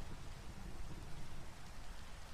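Steady rain hisses without pause, with a soft low rumble underneath like thunder. The downpour stays even and fairly quiet, and no one speaks.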